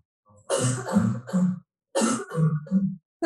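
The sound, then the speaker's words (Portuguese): A young woman with a viral infection and acute asthma coughs in two close bouts of about three harsh, wheezy coughs each, separated by a short pause, loud with no talking. “antes de passar a tosse convulsa, queria aqui que ouvissem um outro exemplo, neste caso é uma jovem com asma”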